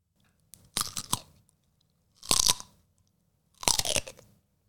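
Three loud crunching bites into a carrot, each a sharp burst of crisp snapping followed by brief chewing, separated by short pauses. No one speaks.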